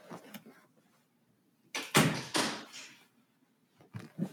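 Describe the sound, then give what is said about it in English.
A door is pushed shut after a cat is let in, with a burst of creaking and rattling, followed by a settling thud. A couple of soft knocks come after in otherwise quiet surroundings. “You gotta close the door.”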